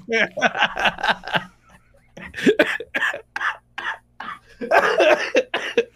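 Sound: heavy coughing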